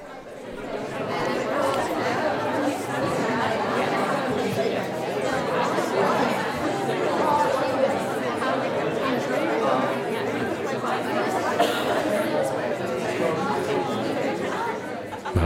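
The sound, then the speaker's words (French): A steady hubbub of many overlapping young voices fills a room, indistinct chatter at an even, moderate level throughout, like a classroom before a lesson begins. “Attends, on se met, ce, petit son là, cette air de classe là, ça me rappelle la rentrée, quoi.”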